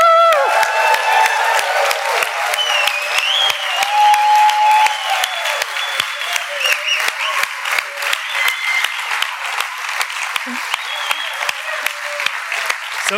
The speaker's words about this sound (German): Also kommt aufstehen, wir klatschen und jubeln unserem Gott zu. Woo!